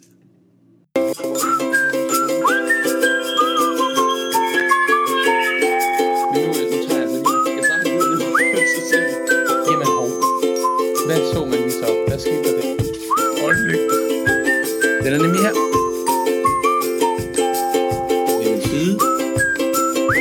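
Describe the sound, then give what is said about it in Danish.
A bright whistled jingle for the radio morning show Morgenmokken med Mads carries a bouncy, repeating melody for about twenty seconds over a steady musical backing, fairly loud, with no talking. “Nu skal vi altså også have en jingle. Så spids læberne og fløjt derudad”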